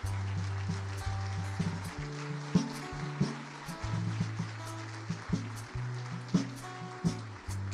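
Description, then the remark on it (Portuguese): An audience applauds for Jesus over music, a steady patter of clapping with regular sharper accents, while low sustained keyboard bass notes shift underneath. “Pode aplaudir a Jesus primeiro.”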